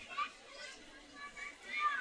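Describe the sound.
Small children's high-pitched voices, some held in their mothers' arms, chatter and call out amid a crowd of mothers at a Muharram mourning gathering for Imam Hussein, with a couple of brief rising squeals standing out over a steady, moderately quiet background murmur.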